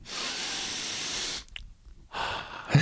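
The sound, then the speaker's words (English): A long, deep inhale with an airy hiss, a brief pause, then a steady breath out through the mouth, with no talking, taken as a breathing exercise before smoking marijuana. “breathing before you smoke”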